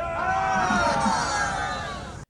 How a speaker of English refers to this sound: You may have noticed some sounds on the ship, a lot of them being the sound of other people's voices.